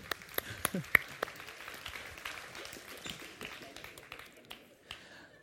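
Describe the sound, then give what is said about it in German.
An audience breaks into applause after a backwards trust-fall exercise, a dense, crackling patter of many hands clapping together that holds steady for several seconds before thinning out and fading near the end. “Einen großen Applaus an euch.”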